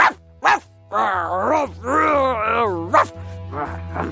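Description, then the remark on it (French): A person's voice imitates an angry dog, with drawn-out growling snarls broken by a few short, sharp bursts. It is fairly loud, and no words are spoken. “Et parfois, il est d'une humeur de chien.”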